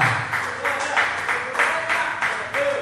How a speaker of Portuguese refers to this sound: Vamos aplaudir o nome do Senhor. Vamos aplaudir o nome do Senhor com alegria. Aleluia.